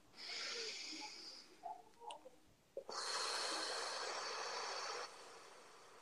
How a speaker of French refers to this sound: Alors, une respiration.